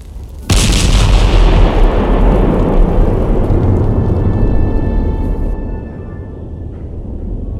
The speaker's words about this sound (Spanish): La fuerza de la explosión del barco creó simultáneamente tres fuerzas mayores, un terremoto, una onda expansiva y un maremoto.